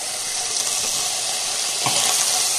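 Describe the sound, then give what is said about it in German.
A vegetable mixture with juniper berries and cloves hits a hot pan with a loud, steady sizzle, a dense crackling hiss that swells briefly partway through as more goes in. No one speaks. “Das tue ich direkt in diese Gemüsemischung mit rein die ich dann gleich dazu schmeiße.”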